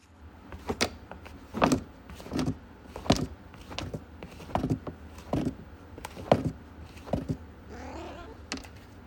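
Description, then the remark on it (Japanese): A cat scratches and rakes litter in its litter box after using it: a steady series of short, gritty, rustling strokes, fairly quiet, with a softer shuffle near the end. “猫がトイレを済ませた後にシャカシャカしている音”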